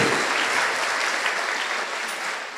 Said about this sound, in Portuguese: Pode aplaudir.